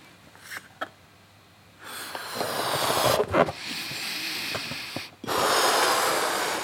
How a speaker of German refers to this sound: Dieses Geräusch, was ihr jetzt gerade hört, dieses …, wie er diesen Luftballon aufbläst.